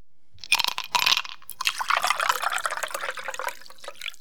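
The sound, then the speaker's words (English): Two bright glassy clinks ring out, followed by a few seconds of liquid splashing and trickling, as glasses are clinked in a toast over a shot of Malort. No one speaks. “Cheers and I'll I'll title this shot of Malort.”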